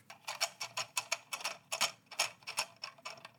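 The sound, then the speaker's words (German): A lanyard being shaken, its clip rattling in a quick, steady series of light clicks, roughly five or six per second, with no voices. “Ich habe mein Schlüsselband.”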